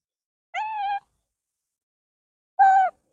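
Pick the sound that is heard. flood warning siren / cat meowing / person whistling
cat meowing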